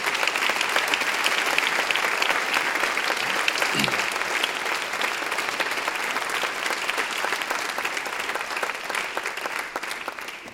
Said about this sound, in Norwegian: dere må gi han òg en applaus mens han løper fram her.